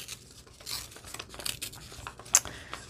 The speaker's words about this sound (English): All right, let's just remove one. Love the tearing. Tearing is so much fun. You should all tear paper every day.